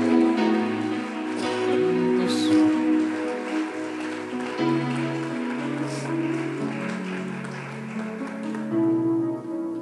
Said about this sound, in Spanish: Vamos, alguien tiene que decir amén y aplaudir al rey.